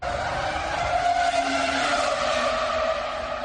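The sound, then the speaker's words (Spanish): An R25 Formula One race car driven by Fernando Alonso passes along the pit lane, its engine screaming at high revs, a loud, sustained, piercing whine with a steady buzzing tone that barely wavers over a few seconds, with no voices. “Pasa el R25, habla ….”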